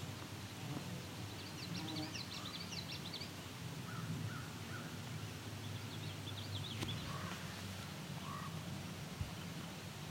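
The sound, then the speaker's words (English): Two indigo buntings sing from very far away, their high, quick paired phrases coming faintly in two bursts over a steady low rumble of background noise. “There's an indigo bunting just singing now.”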